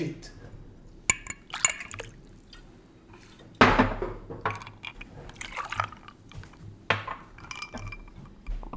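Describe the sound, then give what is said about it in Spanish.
Beer poured into a glass, with a sharp clink of glass followed by a bubbly, fizzing rush of liquid, plus a few more clinks and some soft talking in the background. “Estamos haciendo un ASMR de fondo, que es uno sirviendo una cerveza.”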